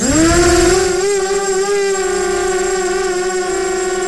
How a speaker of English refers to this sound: What is this? A drone going uh. back and forth over my head while I'm oh. trying to sleep, Dom. My initial thought was it was a hive of bees, but that's which would be more terrifying. But very similar.